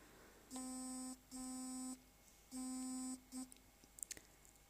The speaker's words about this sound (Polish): O, znowu jakiś telefon zaczął dzwonić. E, no to jest najlepszy dowód na to, że wiecie, to nie jest w żaden sposób cięte, to jest na żywo, wszystkie odgłosy, które słyszycie, to tak właśnie, takie właśnie są